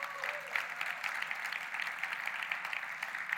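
A church audience applauds to God for the teachers, a dense patter of many hands clapping at once with no distinct rhythm, holding an even moderate level throughout without any voices.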